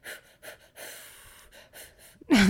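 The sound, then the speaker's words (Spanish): A voice imitates a rhythmic breathing exercise, done before entering ice to relax the body and resembling breathing practised before childbirth: several short breathy puffs followed by a longer sustained exhale and more puffs, ending in a loud, sharp gasp. “empiezas con una serie de respiraciones y ya que haces las respiraciones, entrenas como tu cuerpo a cómo entrar al hielo súper relajado, con una respiración que se parece mucho a las respiraciones que entrenas antes de parir”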